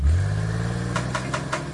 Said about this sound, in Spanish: prender un carro es algo más que prender un carro.